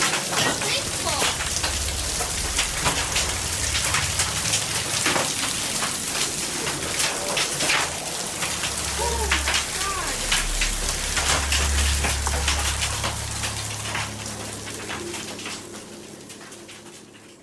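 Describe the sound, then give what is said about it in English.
Heavy rain and hail pelt a surface in a dense, steady clatter of sharp ticks, with a low rumble of thunder swelling in the middle before the downpour eases slightly toward the end. “Any thunderstorm which produces hail that reaches the ground is known as a hailstorm.”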